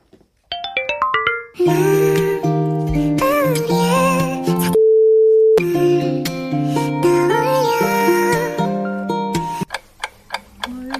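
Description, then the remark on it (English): A K-pop song plays loudly, opening with quick rising bell-like notes before a full, dense arrangement kicks in, pausing briefly on a single held tone midway and ending with plucky staccato notes. “Let's take a listen to our first song.”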